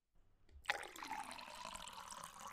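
Water pours steadily into a glass, starting suddenly after a brief quiet moment and running as a continuous splashing stream. No one speaks.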